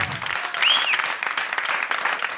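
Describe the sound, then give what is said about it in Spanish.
An audience claps steadily, a dense wash of many hands that stays fairly loud throughout, with a brief high whistle rising above the clapping near the start. “Mirá el aplauso, muy bien.”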